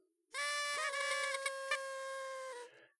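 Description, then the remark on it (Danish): A paper party horn is blown by a party guest in one sustained, buzzy honk of about two seconds, loud and steady with a slight wavering pitch, then cut off. No one talks. “Nogle af gæsterne tager et forlod paphorn og puster i det.”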